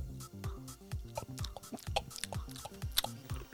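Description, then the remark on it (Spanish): Wet mouth sounds of someone sipping a drink from a glass, with a quick series of gulps and swallows in an uneven rhythm, loud, with no talking. “Oye, me apetece un traguito, ¿eh? Dame, pásame una copa.”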